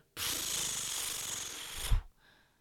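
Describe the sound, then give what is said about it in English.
A single comic book page being turned: a steady papery swish lasting under two seconds, ending in a soft thump as the page settles, with no talking. “Um, first ceremonial page turn noise for all of this week's books.”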